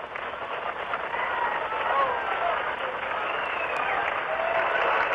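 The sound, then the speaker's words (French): A large crowd cheers and applauds at a Saturn V rocket launch as the rocket rises, a continuous, dense roar that holds steady for several seconds, sounding slightly muffled like an old recording. “La fusée s'élève doucement, doucement, doucement, elle monte. Vous entendez les vivants”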